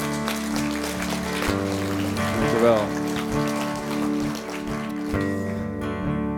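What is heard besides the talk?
audience applause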